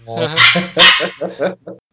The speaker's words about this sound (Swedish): Oj, jag hörde en liten vovve. Ja, han eh, är med här och, och bäddar i sin korg.